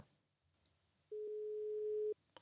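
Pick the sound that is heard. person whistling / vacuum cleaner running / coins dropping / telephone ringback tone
telephone ringback tone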